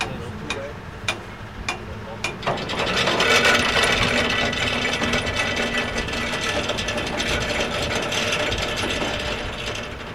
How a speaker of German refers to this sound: Nach etwa fünf Stunden Fahrt in nordöstlicher Richtung hinaus aufs Meer wirft die MS Swordfish endlich Anker.